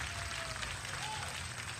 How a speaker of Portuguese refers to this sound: Obrigado, muito obrigado! Aplausos, mais aplausos! Obrigado, obrigado!